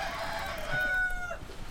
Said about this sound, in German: Aber guck mal hier, die ganzen Hühner und der Hahn und so. Es ist einfach so voll geworden. Furchtbar. Furchtbar. Ja. ja. Hab mich schon gewundert, was das Gegacker heute Nacht da oben ist.